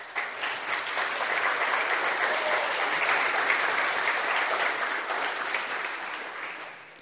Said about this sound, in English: Now, I want to hear a round of applause for these people.